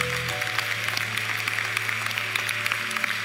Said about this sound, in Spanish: A su nombre. No, apláudale bien, porque de eso se trata el reino del Señor.